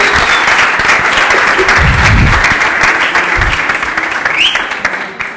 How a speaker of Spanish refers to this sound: Podemos todos dar un aplauso a Walter.